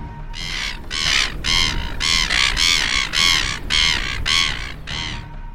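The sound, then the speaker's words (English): A distant gull calls back a challenge in a rapid run of about nine harsh, raspy squawks, fairly loud and evenly paced, over a steady low rumble like wind or surf. “as Karoro the gull called back his challenge.”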